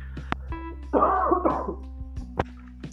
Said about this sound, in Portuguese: Eu vou tossir aqui rapidinho, deixa eu tampar aqui.